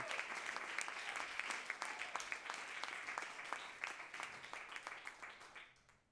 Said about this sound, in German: Also wir können auch nochmal einen Applaus für das ganze Team geben.